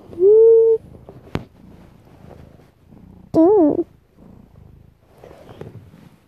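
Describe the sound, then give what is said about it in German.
A pet cat meows twice as it looks under a bed, a long, loud call at the start and a wavering one a few seconds later, with soft purring and faint rustling in between. “Meine Katze”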